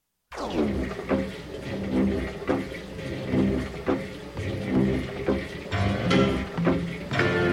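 The water pump at Mickey Hart's ranch in Novato runs steadily, its watery churning punctuated by regular rhythmic thumps roughly every second, with a sustained droning hum underneath.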